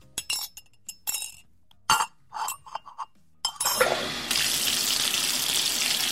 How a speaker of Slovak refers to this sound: Saškina spolubývajúca ju takto eh, zbytočne zobudila umývaním riadov